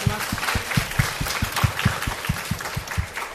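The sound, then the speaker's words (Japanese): An audience bursts into sustained applause after a prayer, a dense crackle of many hands with a steady, rhythmic thump underneath, moderately loud and filling the whole stretch without any talking. “アーメン大きな拍手をあげましょうハレルヤ”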